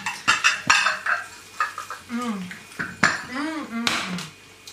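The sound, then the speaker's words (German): Deep plates and cutlery clatter and clink repeatedly as deep plates are taken out in an apartment, sharp irregular knocks of dishware being handled, with brief voice-like murmurs mixed in. “Ähm, tiefe Teller nehmen. Würde ich sagen. Tiefe Teller, ja.”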